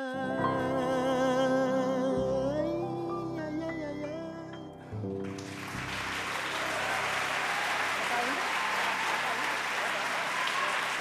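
A sustained note of singing with instruments ends, then loud applause from a large audience bursts in and continues steadily as a dense wash of clapping to the end.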